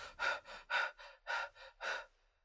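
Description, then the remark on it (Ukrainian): Rapid, shallow breathing: about seven quick, airy in-and-out breaths in a steady, hurried rhythm, clear and fairly loud, with no talking, demonstrating the shallow, fast breathing of panic disorder. “І ми починаємо більш поверхнево і швидко дихати.”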